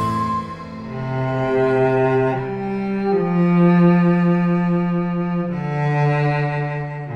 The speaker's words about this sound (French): Ce que vous entendez là, c'est du violoncelle. On doit sa forme définitive au travail de la famille Amati, célèbre dynastie de luthiers des 16e, 17e et 18e siècles du côté de Crémone, c'est en Italie.